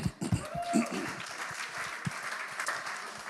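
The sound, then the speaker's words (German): Audience applause for people who recited a Bible verse about the fruit of the Spirit: a dense, steady patter of many hands clapping for a few seconds, with a few voices briefly audible at the start. “Applaus an euch.”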